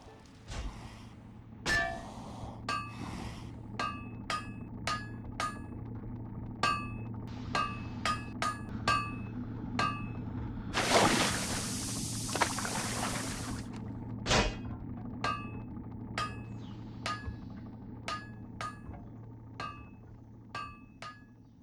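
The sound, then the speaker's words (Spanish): A blacksmith hammers metal at a forge, sharp ringing clangs struck in a steady rhythm with occasional quick double blows, and a brief hissing burst partway through over a low background hum. “Hoy vamos a conocer un poco más de la vida cotidiana del mundo medieval a través del oficio del herrero.”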